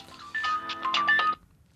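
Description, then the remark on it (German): A work mobile phone in a trouser pocket plays a ringtone, a quick, bright electronic melody of several notes for about a second, clear, then cuts off abruptly into near silence. “So viel zum Thema hier auch Handy aus.”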